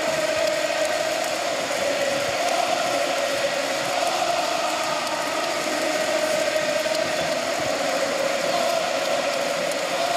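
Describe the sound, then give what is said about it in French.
A huge stadium crowd of Paris fans sings a sustained victory chant before the final whistle, celebrating a ninth consecutive win, a dense, steady roar of massed voices that holds at one loudness throughout, with no individual speech. “Ils sont en train de prendre de l'avance, effectivement, ce champ de la victoire pour cette neuvième victoire consécutive qui se euh, profile.”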